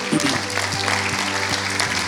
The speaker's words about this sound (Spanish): ¿Qué tal si todos juntos le damos un aplauso al Señor?